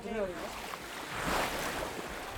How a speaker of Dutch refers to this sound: We gaan ook nog vooruit. Zo klinkt deze boot dus.